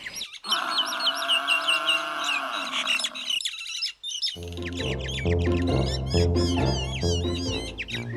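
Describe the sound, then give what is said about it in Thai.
Harsh, squawking myna bird calls chatter for about three seconds, then after a brief pause a music track begins with more high chirping bird calls over it. “ขออธิบายลักษณะนกเอี้ยงก่อนเลยค่ะ บางทีอาจจะเป็นนกที่เราเคยเห็น เพียงแต่ไม่รู้ว่ามันคือนกอะไร เพราะว่าเจ้านกเนี้ยมันอยู่ในเมือง เกาะอยู่ที่เสาไฟฟ้าอยู่บนต้นไม้”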